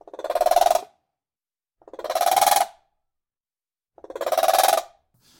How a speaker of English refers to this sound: But capybaras have this very strange kind of miniature horse, eagle, owl kind of sound going on, which is a like a very interesting.